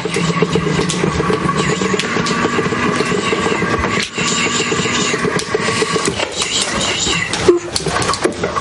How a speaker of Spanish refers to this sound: Anne se divierte probando una nueva silla de ruedas eléctrica. Se mueve accionando el joystick de la mano izquierda.